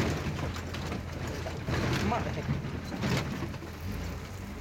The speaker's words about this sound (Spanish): El video muestra árboles de la selva petenera devorados por las llamas.